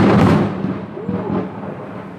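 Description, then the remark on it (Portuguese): A loud thunder clap bursts out and rolls on as a deep, sustained rumble that slowly fades without fully dying away. “Um momento tão desafiador deu esse trovão, esse raio.”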